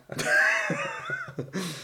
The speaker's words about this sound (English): I've had this cough that won't go away, and I'm fine other than the cough, and it's really annoying, and it's actually stopped me from going to the gym as much as I wanted.